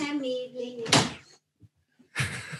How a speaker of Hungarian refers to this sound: Igen, bocsánat, csak közben itt a családi zörejek voltak. Becsukott teljesen az ajtót, kérlek?